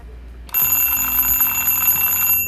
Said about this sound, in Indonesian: Oke, pertama kita hidupkan ini nih. Namanya on off, on off alarm. Kalau off dia nggak bunyi, kalau on dia hidup dia bunyi nah cara mengatur kita tinggal putar-putar ini nih nanti kalau mau tahu suaranya seperti ini sebentar ya